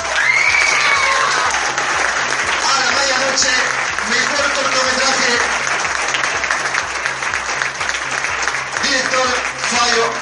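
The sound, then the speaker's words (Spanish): Sustained audience applause with scattered cheers and whoops at the second Festival de Cine Marplatense, after the best short film award goes to A la Medianoche; loud and continuous, dense clapping forming a steady wash of noise with voices rising above it at moments. “Fuerte el aplauso para todos ustedes.”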